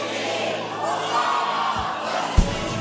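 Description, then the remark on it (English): A large church audience, split in two halves, chants loudly in unison on Palm Sunday, calling "Hosanna" and "Blessed is the king", forming a dense, sustained wall of sound for a few seconds, with a couple of low thumps near the end. “Split right down the middle. You ready? We're the hosannas. You're the blessed is the king, all right? Nice and loud.”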